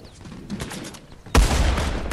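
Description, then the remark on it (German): Video game gunfire erupts suddenly after a quieter stretch, a loud, dense burst of rapid shots continuing to the end, booming with a heavy low rumble. “Achtung! Bis Achtung! Schuss.”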